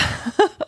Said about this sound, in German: Vielleicht hat man es gehört. Es hupt. Fangen wir mit dem Fahrzeug an. Was ist das? So, ich habe hier heute ein Trabi mitgebracht in Form eines Bobbycars.